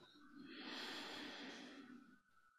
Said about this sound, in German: Dann atmet ihr durch die Nase langsam ein